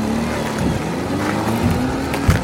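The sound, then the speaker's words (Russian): A snowmobile engine drones loudly and steadily with a sustained low hum, brief revving surges and a sharp burst near the end, as it is driven in a wide arc, gaining speed to cross over ice. “ведет снегоход по широкой дуге. Нам нужно набрать скорость, чтобы проскочить несколько десятков метров на леди.”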